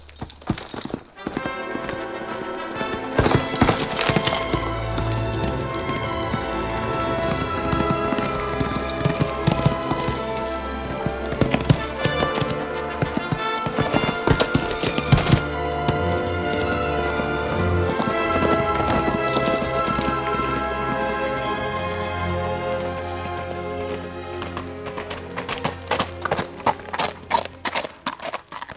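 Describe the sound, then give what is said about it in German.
Horse hooves clip-clop in a steady, continuous rhythm for the whole stretch, fairly loud, over a low sustained rumble, with no one speaking. “Ich und mein Pferd warten nur auf deine Anweisungen.”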